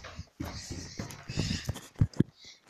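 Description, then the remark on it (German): Footsteps climbing a staircase: a steady series of dull, thudding steps, growing heavier toward the end, with no one speaking. “Äh, jetzt wird ihm ein bisschen leer hören, weil ich gehe jetzt kurz die Treppe hoch”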